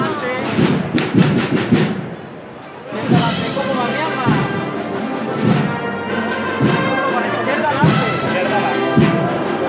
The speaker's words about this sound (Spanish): Suena el bombo, el plato, va a tocar la Cruz Roja.